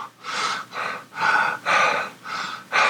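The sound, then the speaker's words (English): A voice imitates rhythmic panting: six quick, breathy huffs in a steady in-out pattern, fairly loud, with no other speech. “it sounds like panting this sort of um, and uh, you turn and you realize it's coming from the the open door.”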